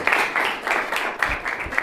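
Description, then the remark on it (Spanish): A steady wash of applause from a group, dense and fairly loud, with the clapping swelling and easing in small waves throughout with no voices. “Así que un aplauso grande”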